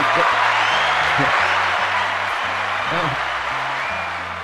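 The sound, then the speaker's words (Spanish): A crowd applauds steadily and loudly for several seconds for the person who paid the group five dollars, with low, stepping musical notes playing underneath and the clapping easing off slightly toward the end. “Was, hey, aplauso, year, aplauso el que le dio cinco pesos.”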